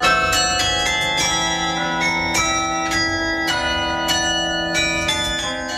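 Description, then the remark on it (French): The carillon bells of the town hall in Lyon, France, ring out the Ukrainian national anthem shortly before 1 pm as a slow melody, each struck note blooming with bright overtones and overlapping the lingering hum of earlier ones, steady and fairly loud with no voices. “Comme dans d'autres grandes villes européennes, le carillon de l'hôtel de ville joue ce morceau tous les jours, un peu avant 13h depuis vendredi, une manière symbolique de témoigner du soutien de la ville de Lyon au peuple ukrainien”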